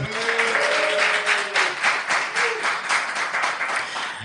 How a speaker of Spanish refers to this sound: es que aquí en un directo ahí pues, tenemos público. Un aplauso, un aplauso, venga.